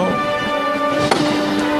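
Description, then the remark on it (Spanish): A single sharp knock from a capataz's hammer on a procession float in the plaza of San Lorenzo cuts through steady, sustained brass-band music, landing about midway through and fading almost at once. “Efectivamente, acaba de sonar el martillo aquí en San Lorenzo y vuelve pues a cuadrarse poco a poco la soledad pues, para, seguir avanzando por esta plaza que lleva, que lleva pues, el nombre de San Lorenzo”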